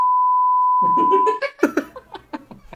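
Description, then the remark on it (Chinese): A steady, mid-pitched censorship bleep, added in post-production over swearing on the show 小欢乐岛, holds for over a second, covering voices beneath it, then cuts off as bursts of laughter and chatter follow. “又播不出来，后期得不停消音，这期大家得听到多少这个哔哔啊？”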